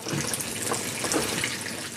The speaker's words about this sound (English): Just yeah. wash my hands.